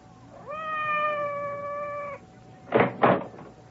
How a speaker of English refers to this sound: It sounded like Madame's cat, Francois.